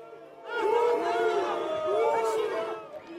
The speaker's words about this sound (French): Bien souvent, sous les huées des manifestants.